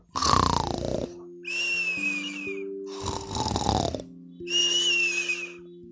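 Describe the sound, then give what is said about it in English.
Two snores in a row from a grandfather, each a rough, rasping inhale followed by a thin whistling breath out, fairly loud over a soft, steady humming tone. “Stanley snuggled up close and Grandpa snored a little snore.”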